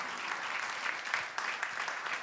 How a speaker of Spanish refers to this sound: Hay alguien que se alegra en esta noche y puede dar un fuerte aplauso a Dios.